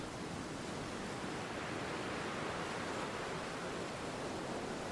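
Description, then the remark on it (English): A steady, dense roar of churning sea surf fills the whole stretch, loud, with no distinct breaking waves standing out and no voices; wild, windy, stormy weather in Scotland, with white surf thrown into the air as the waves rush toward the beach. “The sea churned up.”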